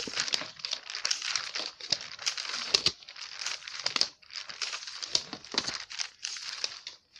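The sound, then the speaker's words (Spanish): Eight paper sheets rustle and crinkle continuously as they're shuffled and handled, with sharp crackling bursts and brief pauses between movements; no voices. “Bueno, si no me equivoco, parece que quedaron de ocho hojas. Una, dos, tres, cuatro, cinco, seis, siete Sí, ocho”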